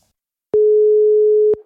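A single steady telephone ringing tone on an outgoing call to the police sounds for about a second, loud and clear, with a flat unchanging pitch and no voices.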